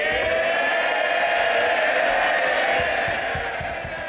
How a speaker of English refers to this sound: Rishi Sunak was greeted with cheers as he took his first session of Prime Minister's Questions or PMQs.